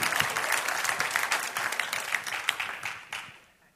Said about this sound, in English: Would you put your hands together and clap for those brothers and sisters?